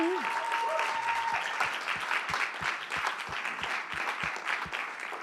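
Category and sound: crowd, audience applause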